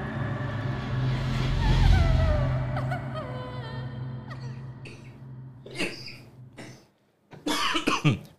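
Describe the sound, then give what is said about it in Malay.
Several people cough in loud, rough bursts, a few scattered coughs first and then a denser cluster near the end, following a stretch of low rumbling background noise. “batuk-batuk semua eh.”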